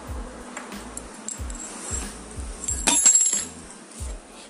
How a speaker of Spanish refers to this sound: Para mi séptimo y último sonido voy a utilizar una tijera y un círculo de metal. Escuchen este sonido.